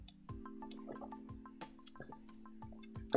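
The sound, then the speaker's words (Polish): Someone takes a drink of water: a series of soft, wet gulps and swallows at an uneven pace over a faint steady hum, with no talking. “Piję Czekaj, no ja muszę się napić wody najpierw.”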